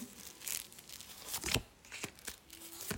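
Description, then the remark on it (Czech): Tarot cards being drawn and handled: a series of soft papery swishes, slides and light taps spread irregularly across a few seconds, fairly quiet, with no one talking. “Ještě tahám další karty.”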